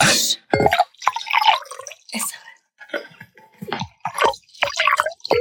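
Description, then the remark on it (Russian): Filtered tap water pours into a glass, coming in uneven splashy bursts with gurgling, rising tones and brief pauses between pours. “Рекламная пауза, да, вода, да, да. вода из-под крана, ага. фильтрованная.”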